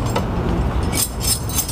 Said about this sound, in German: Das sind die Schlüssel fürs Millantor. Wir Nachtwächter hatten eine ganz wichtige Funktion, indem wir also die Stadttore um 20 Uhr verschlossen haben.